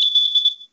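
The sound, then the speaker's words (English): A single high-pitched electronic beep from a home security door and window chime, set off when someone opens a door or window, steady and fairly loud for about half a second before trailing off, with no voices around it. “it beeps in here anytime someone opens a door, a window”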